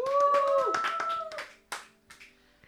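A burst of applause from a small group welcoming the show's producer to sing a song, with quick overlapping claps that are dense and loud at first, then thin out into a few scattered claps. A steady tone rings underneath early on.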